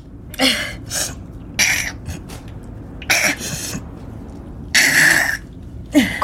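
Someone close by blows their nose into a tissue in a series of short, forceful, breathy honks, roughly seven or eight bursts spread irregularly with brief pauses, and no talking.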